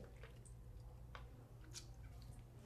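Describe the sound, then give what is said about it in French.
Soft, wet chewing of vegan gummy candy, with irregular squishy smacks and small mouth clicks, faint over a steady low hum, with no talking. “j'écoute tellement juste vos bruits de bouche”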